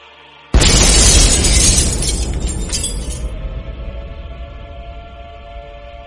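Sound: nuclear reactor explosion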